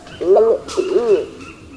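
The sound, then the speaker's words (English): A Wompoo fruit dove, a large pigeon-like bird perching high in a tree, calls with two deep, resonant, bubbling coos in quick succession, each rising and falling in pitch, heard clearly with faint background ambience. “Feathered in a stunning combination of green, purple, and yellow, this bird is clearly named for its voice”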